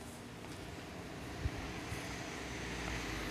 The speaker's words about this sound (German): So, ich glaube, wir sind gerade über eine Straße, muss kurz warten, kam ein Auto, äh, habe ich nicht gesehen, naja.